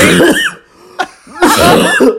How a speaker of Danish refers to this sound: og du har altid hostet en lille smule, så måske... lunger... Se! Se!